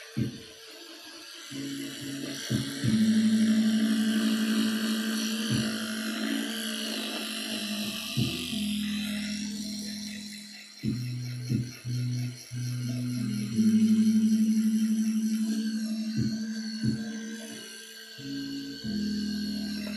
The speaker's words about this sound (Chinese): 好了，那我要先刷牙了，可能会有点吵啊，因为我的牙刷是一个电动牙刷。